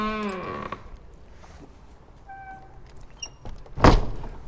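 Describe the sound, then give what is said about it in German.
An old church door lock on the Roter Berg, which sticks a little, being turned shut: a drawn-out groaning creak, a few small clicks, then one loud, sharp clunk as the bolt falls into place. No voices. “Das alte Schloss, das klemmt ein bisschen, aber jetzt ist es verschlossen.”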